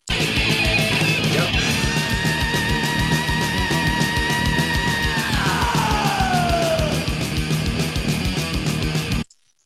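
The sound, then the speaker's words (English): A long, sustained high-pitched human scream rides over loud, dense heavy music with pounding drums, holding steady before sliding downward in pitch, then everything cuts off abruptly. “Um, by the end of the uh, the scream, it, it's it's clearly human voice.”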